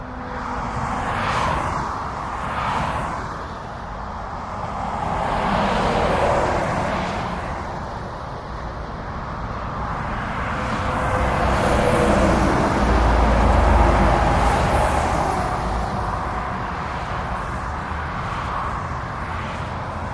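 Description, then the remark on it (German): Steady, heavy traffic roars on the A5 autobahn, heard from beneath the motorway, a deep continuous rumble swelling and fading as vehicles rush past one after another, with no voices over it. “schon unter der Autobahn hindurch. Ich frage mich, wie die Bewohner des Ortes zu ihrer pochenden, dicken Verkehrsader stehen.”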